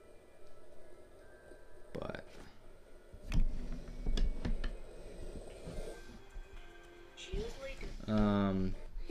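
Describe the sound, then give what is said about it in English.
A murky underwater recording: a low rumbling bed broken by several sharp cracks and pops, then a rising, groaning tone toward the end, like ice shifting and creaking. “Um, they also speculated that it was like ice shifting, and uh, that's what caused the noise.”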